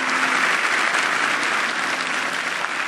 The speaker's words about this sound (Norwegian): Politiet ble møtt med applaus da de kom inn i auditoriet.